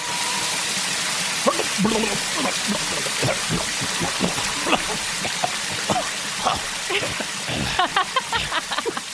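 rain falling

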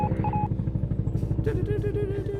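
helicopter sound effect

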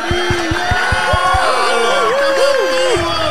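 loud audience applause

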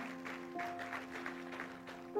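audience applause

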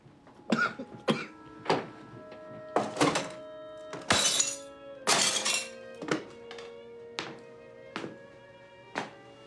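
door being smashed in

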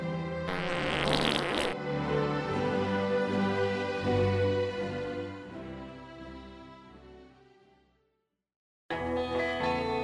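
fart sound effect

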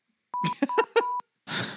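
electronic beeping

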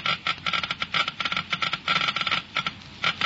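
geiger counter clicking rapidly

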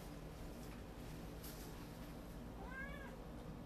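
cat meowing

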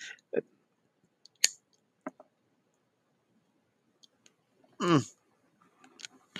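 lighter being flicked

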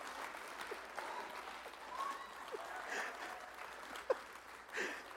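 one person clapping hands

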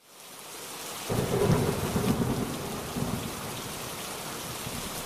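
rain falling

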